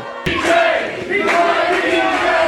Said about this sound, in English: I want you to put your hands together and welcome him to the stage. Big round of applause.